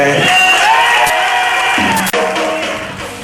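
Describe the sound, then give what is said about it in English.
A large crowd cheers and roars loudly and steadily, with scattered whoops and shouts rising above the dense wall of noise. “When the crowd gets loud, that's a pop.”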